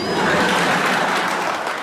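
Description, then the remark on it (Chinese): A short burst of steady applause, many hands clapping together in a dense, even wash of sound that holds at a constant loudness for about two seconds, with no voices. “我那些啦都是失败教训的总结，都是干货，来来点掌声鼓励一下。”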